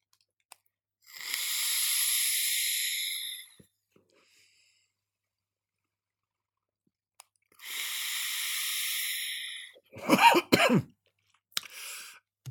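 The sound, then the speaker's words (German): Two long, steady hissing draws on a TFV4 vaporizer tank at 115 watts with Taijai Boba on the Rocks liquid by PJ Empire, separated by silence; right after the second come a few harsh coughs in short bursts, caused by the liquid's freshness on a deep draw, then quiet. “die setzt sich genau am Gaumen bzw. in den Bronchien ab und man ist dazu verleitet zu husten”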